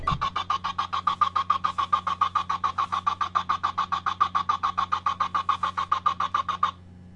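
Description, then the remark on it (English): A rapid, evenly spaced string of identical short synthetic blips, produced by typing a row of Q characters, repeats for about seven seconds, chugging like a steam train over a steady low hum, then stops abruptly. “typing in a row of cues, or maybe more than one row of cues, gets you a sound effect not unlike a chugging train.”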